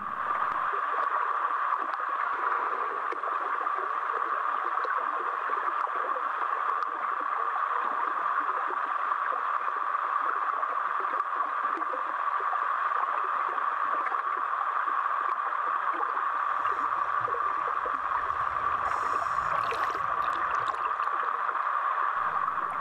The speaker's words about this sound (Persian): این صدای بارونه از زیر آب اینقدر کیف داره فکر کن زیر آب باشی بعد اون بالا داره شور شور بارون میاد یه عالمه موجای ریز و درشت و کلی حباب و رعد و برق یه یه نور تو تموم آب میدرخشه